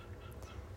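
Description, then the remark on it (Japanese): A frog croaks faintly outdoors, a low, throaty rattling that carries on steadily through the short moment, quiet with no voices. “でもあれカエルだよね聞こ聞こえてるみんな聞こえたさっきの鳴き声聞こえてたらカエルか他の何かか教えてほしいんだけど”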